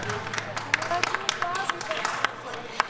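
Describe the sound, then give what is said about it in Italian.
An audience gives a last round of applause, a steady patter of many overlapping hand claps with a few sharper ones standing out, while voices murmur and call out underneath. “Un ultimo applauso, facciamolo”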